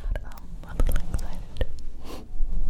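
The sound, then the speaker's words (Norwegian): Soft wet mouth smacks and clicks, a handful of quick pops mixed with breathy whispering, as a person imitates ASMR-style lip smacking. “Det er bare sånn folk som sitter og smatter og”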